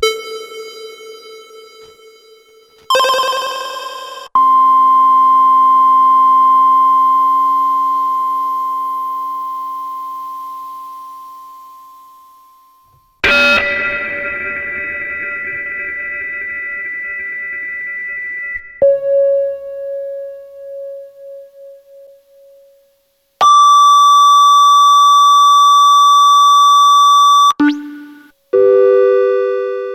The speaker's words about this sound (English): yeah, really great uh, kind of um, synth noises there. Yeah, that's a bunch of synth synths I made on DSN 12.